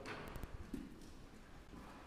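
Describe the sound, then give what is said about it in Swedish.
A cow steps cautiously, lifting her hooves as the barn's manure scraper starts running; a few slow, hesitant hoof steps clop on a hard barn floor, fairly quiet, with a faint low background hum and no one talking. “Där går den i klöven lite försiktigt och då lyfter hon på klöven.”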